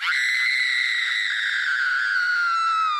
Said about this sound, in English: a blood curdling scream echoes from the outside near the beach.